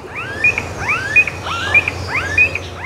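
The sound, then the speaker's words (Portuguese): A smooth-billed ani (anu-preto), a relative of the cuckoo, gives four rising, whining calls, each an upward-sweeping squeal, repeated at a steady pace, clear over a faint background hum. “Outros dois parentes do Cuco super conhecidos são o Ano Branco e o Ano Preto.”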